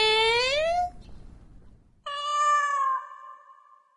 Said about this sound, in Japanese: ああおじの飼い猫なんですけど勝手に外に出たみたいで連れて帰ろうかなって